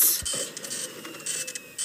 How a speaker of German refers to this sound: Drucker, geh doch aus. Okay, er ist aus, er ist aus.